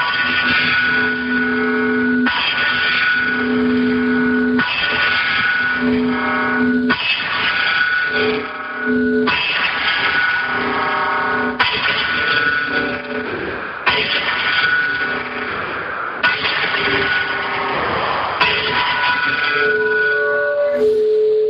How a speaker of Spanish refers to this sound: Pues ahí están las señales horarias eh, transformadas en, campanadas de Outeiro de Rey.